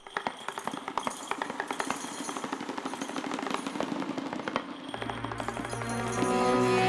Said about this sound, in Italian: l'ultima canzone del nostro percorso musicale ispanico di oggi che ha immerso le radici nell'assenza musicale spagnola degli anni Ottanta Post dittatura